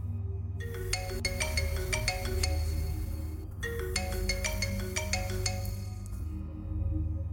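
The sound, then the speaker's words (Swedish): A phone rings in the evening with a bright, melodic ringtone, two bursts of rapid chiming notes separated by a brief pause, clear over a low steady hum, with no voices. “Strax efter att min pappa dött, mycket saknad och älskad ringer telefonen en kväll.”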